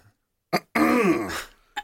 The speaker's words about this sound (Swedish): Någon harklar sig där borta och sen.